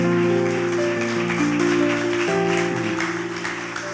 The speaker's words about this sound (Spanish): Vamos, denle un aplauso a Dios por todo eso.